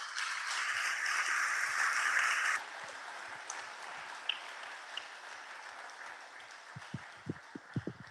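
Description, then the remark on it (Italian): An audience gives a big round of applause for Carlo, a dense, steady wash of clapping that is loud for the first couple of seconds, then drops to softer, continuing applause, with a few low thumps near the end. “Facciamo prima un grande applauso a Carlo.”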